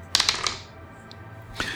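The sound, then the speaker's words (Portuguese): A six-sided die (D6), rolled as an oracle in a solo tabletop role-playing game, clatters across a table in a quick burst of four or five sharp, bright clicks, then a brief pause before one more tap as it settles, showing a 2. “Eu vou pegar aqui um D6, se eu tiver um resultado é par, a resposta é positiva.”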